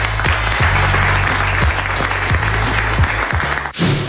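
Sustained applause from an audience in Niort for the announced local award winner, a dense, loud wash of clapping with a steady crackle that continues for several seconds before cutting off abruptly near the end.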